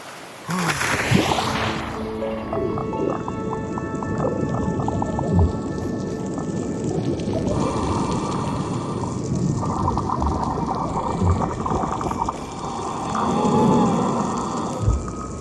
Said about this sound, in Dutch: Ik ben op een fantastische plek, namelijk een koraalrif. En koraalriffen barsten van de dieren, van de kleuren en ook van de geluiden. Hoe een koraalrif klinkt, luister maar.